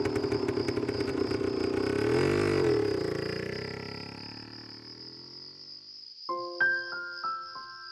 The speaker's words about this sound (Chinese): 深夜空旷的大街上，恩凯骑着摩托车。